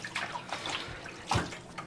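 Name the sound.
water splashing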